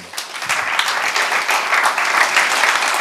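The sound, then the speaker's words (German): An audience applauds steadily for a few seconds, a dense crackle of many hands clapping at once with fairly even loudness and no voices standing out. “Du kannst ihm mal einen Applaus geben.”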